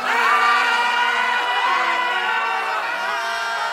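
A loud, excited crowd of Black Friday shoppers storming into stores shouts and whoops together, a dense wall of overlapping high-pitched voices that holds steady for several seconds without a pause.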